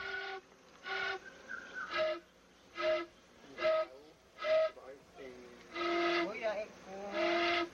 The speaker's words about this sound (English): And these mambi are, are honey whistles used to, I guess, cajole the bees or persuade the bees to relinquish their honey and to notify other men when they go out searching for honey trees that in fact the tree's been found.